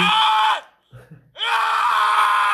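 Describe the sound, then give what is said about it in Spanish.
Two long, loud, agonized screams of guards being killed, separated by a short pause holding a low groan, the second scream sustained and piercing until the end. “Es que ese era el sonido de los guardias que asesinó a Abigail.”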